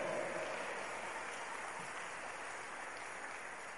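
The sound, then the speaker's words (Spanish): Dense, sustained applause for God from a crowd at a church gathering, many hands clapping at once in a steady, loud wash of noise that fades only slightly over a few seconds, with no distinct individual claps or voices. “Démosle fuerte las palmas al que vive.”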